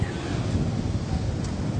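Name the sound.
ocean waves and wind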